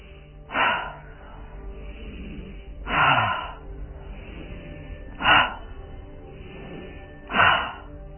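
Breath of fire yogic breathing exercise: four sharp, loud breaths pushed out through the nose at a slow, steady pace about two seconds apart, with no talking in between.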